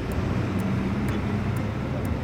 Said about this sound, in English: And with that, the bus heads out, taking the couple away from the war and towards Europe.